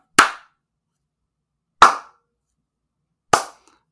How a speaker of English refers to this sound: Now I'll do the slow clap I was doing while you were talking, but uh.